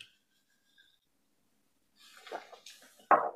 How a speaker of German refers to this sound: Okay. Wasser trinken, komm, das machen wir.